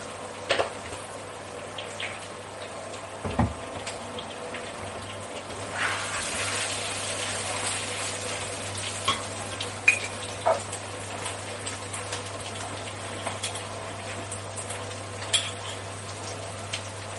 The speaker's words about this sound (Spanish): Y lo único que hago ahora es añadirle el agua. Tengo caldo, pero lo tengo congelado y no lo voy a sacar para eso.